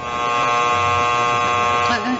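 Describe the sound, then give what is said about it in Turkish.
A steady, harsh electric buzzer in a prison signals the end of visiting hours, droning continuously for about two seconds, loud and unwavering with a rich buzzing tone, while faint voices murmur underneath toward the end. “Nedir bu düdük sesi? Ziyaret saati sona erdi.”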